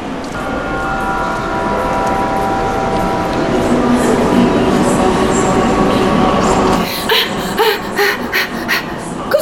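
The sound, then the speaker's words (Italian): A train rumbles loudly and steadily with a high, droning whine over it at platform 3 of Asti railway station, then the roar drops off near the end, leaving scattered clanks and bursts of platform noise. “Stazione di Asti, binario 3.”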